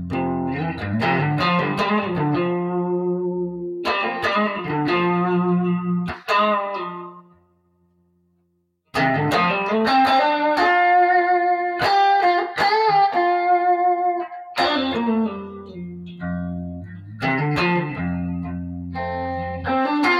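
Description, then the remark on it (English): Gritty, overdriven electric guitar through amps set to a gritty American-style tone, played in bluesy phrases with sustained bends and chords, loud and up front, broken by a brief silence partway through before the playing resumes. “And yeah, well, what we ended up with was um, um, a very, you know, what I would consider a, a very, um, in terms of the amps and tones and stuff, a, a very gritty American style tone.”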